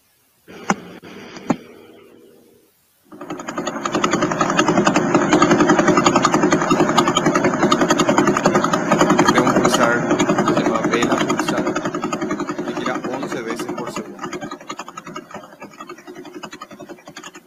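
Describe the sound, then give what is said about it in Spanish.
A pulsar spinning 642 times per second rendered as sound: a loud, steady, continuous buzzing drone that starts abruptly after a few brief clicks and holds unbroken for about fourteen seconds. “que es el sonido de un pulsar que está girando 642 veces por segundo.”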